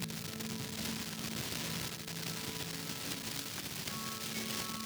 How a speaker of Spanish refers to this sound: hay hasta interferencia.